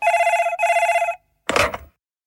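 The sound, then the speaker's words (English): A telephone rings twice in quick succession as a call is placed to phone a friend, a loud, steady, bright electronic trill, followed after a short pause by a brief rustling burst like the handset being picked up. “Well, with the 50 50 out of the way and no time to swap out for a new question, I'm going to phone a friend.”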